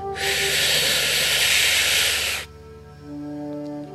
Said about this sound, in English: And we're going to take three deep breaths together. And I want you to imagine you're sipping in the sunlight through your mouth, almost like you're sipping in sunlight through a straw. Inhale through your mouth.